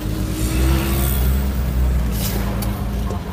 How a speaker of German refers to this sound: Ja, Straßenbahn.